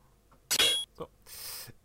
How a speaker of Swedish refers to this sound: Final Fantasy 7. Ja, det, eh, det här ljudet spelas när man equippar items.